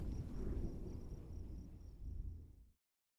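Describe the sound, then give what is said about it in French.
A loud, deep rumble of thunder from a lightning strike rolls and booms for a few seconds, heavy in the low end, then cuts off abruptly. A faint high insect-like whine sits behind it. “Un éclair. La foudre.”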